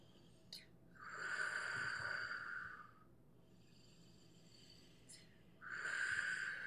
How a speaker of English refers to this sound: I'm going to do the breathing with you. You will hear me breathing. That is how you should sound as well.